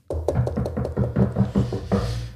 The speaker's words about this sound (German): Kleinen virtuellen Applaus auf jeden Fall. Ich fand's super. Also, Wir können ja klopfen.